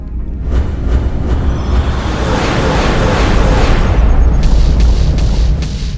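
A loud torpedo explosion rolls out as a deep, sustained roaring boom, its heavy rumble filling the whole stretch without fading, with no voices present.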